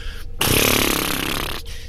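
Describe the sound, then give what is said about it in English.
A voice imitates a fart with a loud, buzzing lip raspberry lasting over a second, a broad rattling flutter of steady pulses that starts abruptly and cuts off. “I'm going to grab that, but uh, I'm going to give it some extra oomph by uh, generating some, some uh, pr- you know, uh, pressure with my lips. Just like real big floppy uh,”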